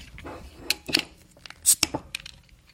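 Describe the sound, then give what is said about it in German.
A beer bottle being opened close up, with a microphone held to the bottle: a quick run of sharp clicks and glassy, metallic clinks, with one brighter hissing snap in the middle, then a few small taps trailing off. “ich mache mein Mikro an eine Flasche wegen Atmo.”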